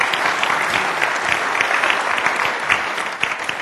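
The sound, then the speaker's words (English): A room full of people claps steadily for several seconds, a dense, even patter of many hands with no voices rising above it. “Feel free to applaud to that.”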